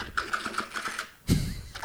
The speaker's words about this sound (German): Zum Beispiel, wenn ich hier so über meine Tastatur gehe und dann.